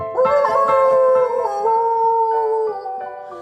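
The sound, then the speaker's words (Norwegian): A person imitates a wolf's howl with one long, sustained, wavering tone that slides gently in pitch, loud and close, held for a few seconds before trailing off. “I det fjerne uler en ulv.”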